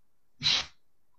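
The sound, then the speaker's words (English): A single sharp sneeze bursts out of near silence, a short loud hiss of breath lasting about a quarter second, with no talking around it. “bless you”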